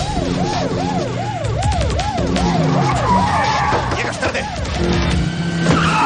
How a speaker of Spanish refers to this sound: Tomás pega un frenazo al ver que Taylor se ha detenido en una calle perpendicular